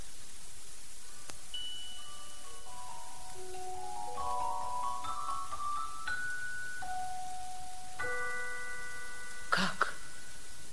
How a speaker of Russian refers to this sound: Пробили часы, а он все не идет.